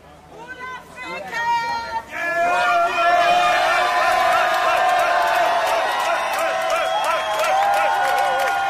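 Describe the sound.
A crowd in the street in front of the court (Østre Landsret) cheers and shouts loudly as a woman jailed after a demonstration comes out, many voices rising together after a brief quieter start and holding a sustained, excited roar with some clapping mixed in.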